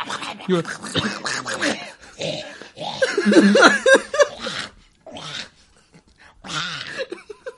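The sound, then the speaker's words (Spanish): A person makes a raspy, gurgling voice that imitates a dog retching and vomiting, in several close, loud bursts separated by short pauses. “Como perro vomitando.”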